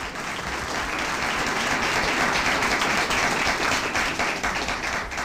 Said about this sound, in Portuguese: Uma salva de palmas aí para essa galera.